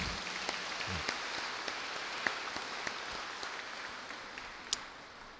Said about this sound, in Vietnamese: chúng ta vỗ tay chúc mừng nhau